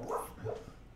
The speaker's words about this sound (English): And yeah, that's my dog in the background snoring. So you guys are gonna you guys are gonna hear her making her weird uh, snoring dog noises.